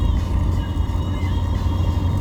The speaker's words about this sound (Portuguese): Então, ó que o carro tá morrendo. Vou ter que desligar o ar-condicionado. esse é o meu carro, cara. É o carro que eu tenho que desligar o ar-condicionado para conseguir subir o morro. Senão ele não, não aguenta. Tá na segunda marcha aqui